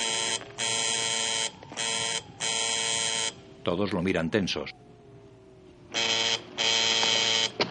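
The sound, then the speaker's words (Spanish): A field telephone placed among stones and plants rings in loud, harsh buzzing bursts, several in a row with short gaps, then pauses while a man briefly speaks before the ringing resumes. “Suena un teléfono colocado entre piedras y plantas.”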